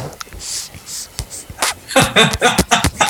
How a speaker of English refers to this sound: That's the sound of vaping